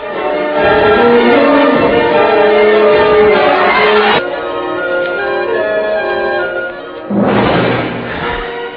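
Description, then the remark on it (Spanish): Chapel bells toll slowly in a mournful death knell, heavy strikes ringing out loud and sustained, one stroke fading into a long resonant hum before the next peal lands near the end. “Avisan a la capilla para que las campanas doblen a muerto.”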